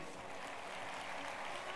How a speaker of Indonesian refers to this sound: ya, thank you tepuk tangan dulu buat semuanya.